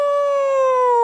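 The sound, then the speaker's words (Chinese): A person imitates a big grey wolf howling from outside a neighbour's home, to go along with a mother telling her crying baby a wolf is outside, with one sustained, loud, steady tone that glides slightly downward in pitch, rich in harmonics, lasting about a second with no other sounds. “人家的妈说了，这外头有大灰狼叫，是吧？”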